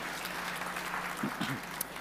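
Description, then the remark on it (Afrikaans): A group of people clap their hands together in steady, dense applause, many overlapping claps forming a continuous patter, with a brief murmur of a voice underneath near the end. “Wil julle vir hulle ook 'n lekker hande klap gee?”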